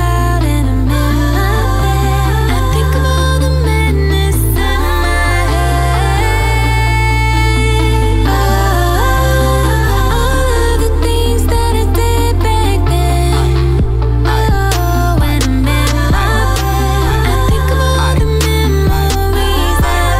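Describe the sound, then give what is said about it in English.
Loud instrumental music plays continuously for about twenty seconds, with a steady, pulsing bass line under bright, layered melodic instruments and no voices. “But let's so. go back to listen to music.”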